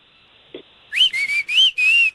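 A person whistles four short, bright bursts in quick succession, the first swooping upward, clear, over a faint steady high-pitched tone, with no talking.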